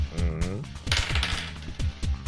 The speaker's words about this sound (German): Würfel doch bitte einmal Schaden?